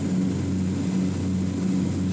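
A propeller airplane engine drones steadily in flight off the coast of Cuba while bottles of gospel tracts are tossed out of the airplane; a loud, continuous low hum with a pulsing throb from the prop, unbroken throughout, with no voices.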